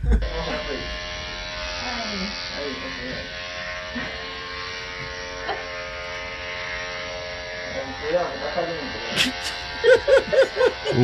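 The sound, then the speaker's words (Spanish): An electric razor runs steadily for the whole clip, a constant mid-pitched buzzing hum. Toward the end, short voice-like bursts and clatter break in over the drone. “Eh, mami, ven, afeíteme el culo que quiero hacer un video para mandar.”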